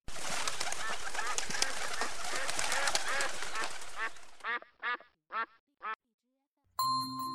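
A noisy flock of ducks quacks together for about four seconds, then four single loud quacks follow in a row, and a brief bright chime sounds at the end, in the children's picture-book story 'The Flying Duck' (会飞的鸭子).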